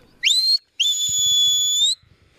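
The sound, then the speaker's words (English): A shepherd's whistle command telling the sheepdog Sass to take her left as she works a mob of sheep: a short, rising, shrill blast followed by a longer piercing note that swoops upward and holds steady, with faint low thumps underneath. “So what have you just told her to do? To take her left.”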